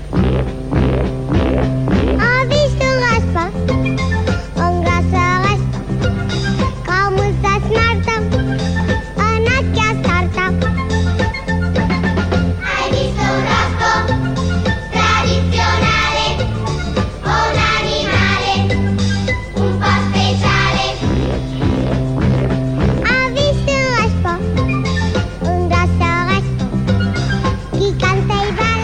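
A children's song recording plays continuously at a steady, fairly loud level, with a bouncy full-band accompaniment and a melodic sung line running through the whole stretch.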